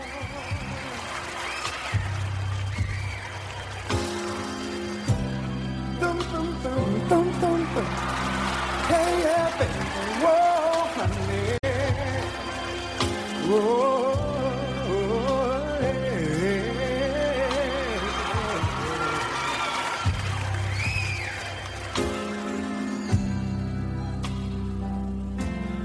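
A slow live soul ballad performed at the 1988 NAACP Image Awards: a smooth male voice sings long, gliding melodic lines over sustained keyboard chords and a steady, deep bass, holding an even, full loudness throughout.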